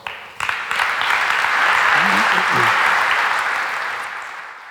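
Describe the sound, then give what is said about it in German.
An audience applauds as a speaker is invited onto the stage to talk about electric mobility, a dense wash of hand claps that swells quickly, holds loud, then begins to taper slightly toward the end. A few brief murmurs sit beneath it. “ich darf dich auf die Bühne bitten und ich ersuche um einen Applaus.”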